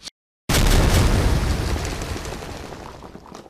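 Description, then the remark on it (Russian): A single loud, sudden blast erupts after a brief silence, a deep booming explosion with broad rumbling debris noise that slowly decays over a few seconds, as rescuers blast rock boulders that fell onto a road in California after a storm. No one speaks. “Вот эти каменные глыбы, рухнувшие на дорогу, спасателям пришлось взрывать.”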